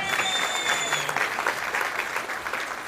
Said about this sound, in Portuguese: Palmas